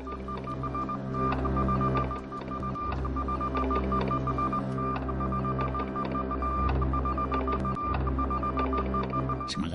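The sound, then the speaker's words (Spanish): A steady electronic Morse code tone drones on without pause as a finger stays stuck on the Morse key, fairly loud and buzzy with a couple of brief dips in its otherwise unbroken sound. “enganchado el dedo en el morse, ¿eh?”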